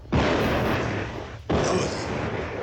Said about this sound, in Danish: Nå, det er bare amerikanerne, der løber og laver lidt prøvesprængninger.